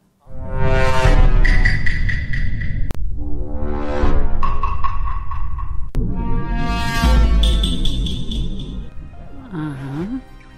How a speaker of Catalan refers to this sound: És un so que s'utilitza per a fer broma o crear efectes sobre coses, normalment coses no bones. A la gent que seguiu l'actualitat dels videojocs segur que vos sonarà molt això que va sonar, que és efectivament un glissando de trombó.